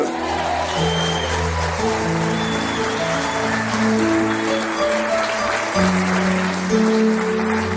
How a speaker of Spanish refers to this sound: Dale el aplauso a él.